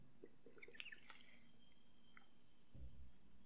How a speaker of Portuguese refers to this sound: Uh, vou beber uma água, fazer o SMR grátis aqui.